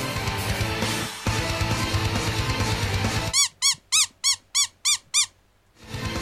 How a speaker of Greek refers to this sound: Μην πιέζει το παιχνιδάκι πουλί του Ραμών γιατί το ακούει ο δικό μου και θέλει να παίξει κι αυτό. Το ακούει ο δικό και θέλει να παίξει με το πουλί του Ραμών